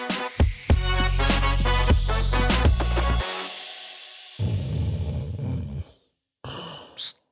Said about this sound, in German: Da schnarcht jemand. Hey, äh, wer ist das denn?